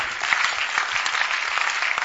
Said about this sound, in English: Those who are clapping,